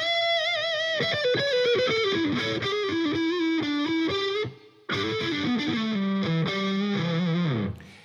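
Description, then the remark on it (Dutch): A loud, heavily distorted electric guitar riff plays as a short jingle introducing the next programme segment, with descending sustained notes in two phrases split by a brief gap, and no voices. “Ja, die eh, kwam hard binnen, die gitaar.”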